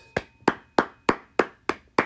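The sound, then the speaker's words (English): Seven sharp hand claps in a steady, even rhythm, each crisp and bright with a quick decay, like one person clapping alone with no voices. “This is your round of applause, and you definitely deserve it.”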